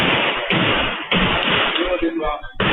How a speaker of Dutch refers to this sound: Vijf schoten.